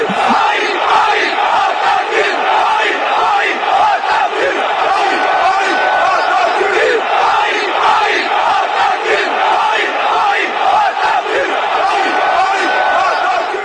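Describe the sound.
Olympique de Marseille football supporters chant in unison in a stadium, taunting Paris Saint-Germain, a dense roar of many voices holding a steady, loud rhythm with sharp accents throughout.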